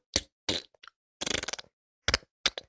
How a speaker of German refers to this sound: Das war, ich schwöre, das habt ihr vielleicht auch gehört. Da ich schwöre, das bin ich nicht, also ich habe einen Stift runtergeschubst, den muss ich dann noch aufheben nach dieser Podcast-Folge.